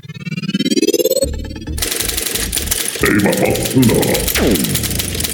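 A short, busy jingle of layered synthetic tones and clattering, typewriter-like rhythmic effects, loud and dense throughout, with a rising sweep at the start and no voices.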